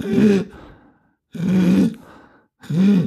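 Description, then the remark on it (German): A voice imitates inspiratory stridor, the harsh breathing sound children with croup make when inhaling, three times in a row, each strained breath rasping loudly, separated by short pauses with fainter breathy tails. “das Erschreckende ist dieser sogenannte inspiratorische Stridor, also ein Atemgeräusch, das die Kinder beim Einatmen haben, dieses”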